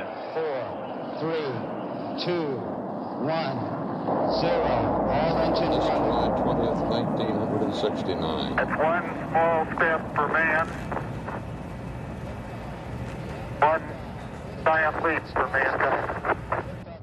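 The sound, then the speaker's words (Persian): An Apollo rocket launch recording: a steady, deep roaring rumble swells in and holds, while crackly radio-style voices talk over it throughout. “و بعد صدای هوا کردن آپولو رو شنیدید”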